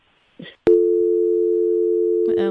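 A dropped phone call: a sharp click, then a loud, steady electronic tone that holds unbroken for about two seconds, with a faint voice stirring just before and as it ends.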